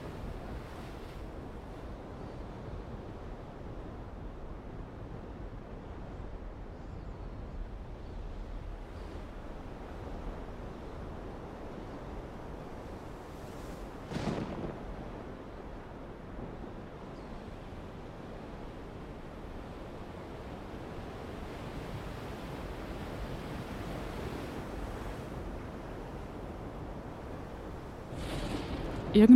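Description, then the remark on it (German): Steady roar of ocean waves and wind out on the open Atlantic, a continuous broad wash with a brief louder gust or splash midway and another near the end, no voices. “irgendwo auf dem Atlantik, zwischen Paris und New York, weit draußen auf dem entfesselten Meer, gibt es einen besonderen Ort.”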